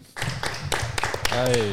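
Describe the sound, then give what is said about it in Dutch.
An audience breaks into applause to welcome a guest, a dense wash of clapping with sharper claps popping out, and voices calling out over it toward the end. “Graag een applaus dames en heren”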